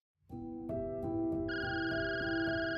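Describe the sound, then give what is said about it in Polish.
A telephone rings with a steady electronic tone, layered sustained pitches and a regular pulsing beat, fairly loud, with no voices. “Kiedy Linda usłyszała dźwięk dzwoniącego telefonu, początkowo nie chciała odebrać.”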